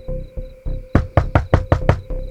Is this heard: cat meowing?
no